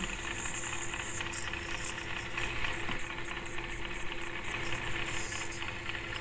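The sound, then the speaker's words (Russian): A dental ultrasonic scaler removing tartar deposits hums with a thin, steady high whine over a dense hiss of water spray and suction, continuous throughout, with faint scraping flickers but no voices. “Снимаем отложение ультразвуком.”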